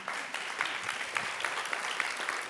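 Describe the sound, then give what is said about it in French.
Steady audience applause for the invited guests at a conference, a dense crackle of many hands clapping at once, sustained at an even, moderately loud level with scattered sharper claps poking through. “Est-ce que je peux vous demander, s'il vous plaît, de les applaudir très chaleureusement”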